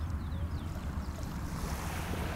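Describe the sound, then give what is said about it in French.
Continuous rushing water, like waves washing in, forms a steady, even wash of noise with a deep low rumble underneath. It holds at a constant level throughout, with no voices. “du bruit de l'eau, du tonus musculaire et de tout ce qui fait que c'est silencieux dans votre tête.”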